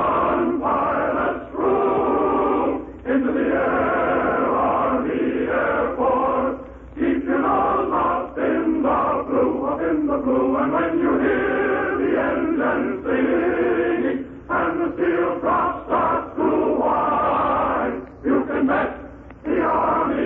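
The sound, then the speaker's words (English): A male chorus of about fifty airmen, Lieutenant Leonard de Paur's Winged Victory Chorus, sings the rousing Air Force song in full voice, many voices together in steady phrases with brief breaths between lines, sounding like an old, band-limited recording. “Contact, here's the chorus and the spirit of the Air Forces.”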